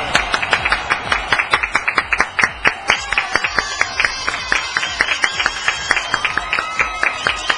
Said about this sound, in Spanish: ¡Qué bárbaro! sigue los aplausos! ¡No manches! No, no manches!